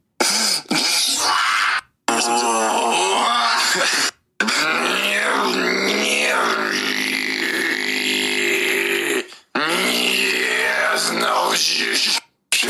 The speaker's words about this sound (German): Wer möchte nicht davon geweckt werden? Von der Throat Bass. Hört mal rein.